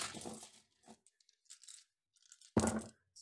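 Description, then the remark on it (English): A handful of dice rolled for a Wisdom save in a tabletop game clatters and tumbles across a hard tabletop, scattered clicks trailing off before a louder burst of rattling near the end, with no voices. “So much dice. I love that sound”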